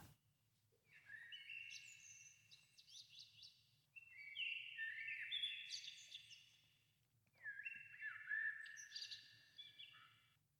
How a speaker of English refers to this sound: Take this morning, for example. The bird wakes up extra early and performs his chirpiest song